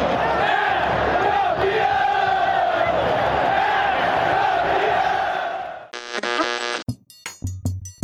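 A crowd of 63,000 fans at the Castelão stadium roars and cheers continuously for about six seconds as Ceará wins the 2015 Copa do Nordeste title, a dense wall of voices, then cuts abruptly to a short burst of music and scattered tonal sounds.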